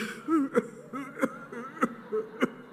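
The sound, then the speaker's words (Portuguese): A person demonstrates what a Covid cough sounds like: four short, sharp dry hacks at an even, steady pace, each followed by a brief, faint voiced breath. The coughs are moderately loud, with no talking. “A tosse do Covid é mais ou menos assim.”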